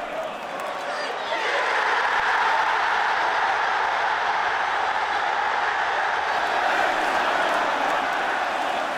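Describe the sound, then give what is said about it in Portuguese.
A huge crowd of Tottenham fans in a stadium sings "When the Spurs Go Marching In", almost the club's anthem and its most-sung fan song, a dense, loud, sustained roar of voices swelling in after a quieter first second and holding steady to the end. “É quase o hino do clube, né? A música mais cantada do torcedor do Tottenham.”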